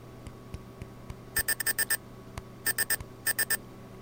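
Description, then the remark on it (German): A device error tone, sounding after the back button is pressed while already at the leftmost position: bursts of short, high electronic beeps in quick groups of five, three and three, fairly loud, with faint clicks and low hum in between and no talking. “Ne, das ist ein Fehlerton. Ihr seid auf die Zurücktaste gegangen, ähm, aber wir sind schon ganz links”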